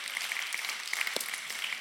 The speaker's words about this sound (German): vielleicht können wir uns noch einmal gemeinsam einfach einen gegenseitigen Applaus geben für all die Leute hinter der Kamera. Hey, schön euch zu sehen.